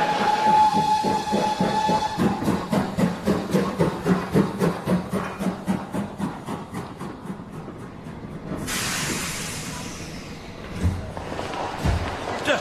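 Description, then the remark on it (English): A steam train pulls in: a brief whistle, then a steady rhythmic chuffing that gives way to a loud burst of hissing steam and a few metallic clanks. “It says, Here comes the train now.”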